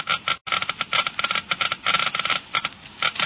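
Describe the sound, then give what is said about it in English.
A Geiger counter crackles with rapid, dense clicking as it measures the wear rate of motor oil in a car engine, a fast irregular stream of sharp ticks with one brief gap near the start, fairly loud with no voices. “You have just heard Geiger counters clicking off the scientific proof that new RPM motor oil is years ahead.”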